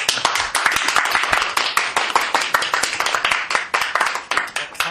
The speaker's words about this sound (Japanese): では拍手